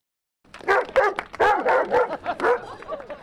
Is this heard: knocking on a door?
no